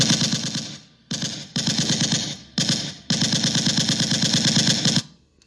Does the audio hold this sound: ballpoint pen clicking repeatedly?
no